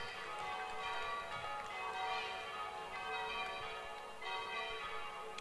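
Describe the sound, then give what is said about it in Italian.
Church bells peal continuously, several overlapping tones ringing out in a dense, sustained wash that swells and fades slightly, with no voices. “Questo è il messaggio più puro del cristianesimo e le campane fanno bene a sottolinearlo”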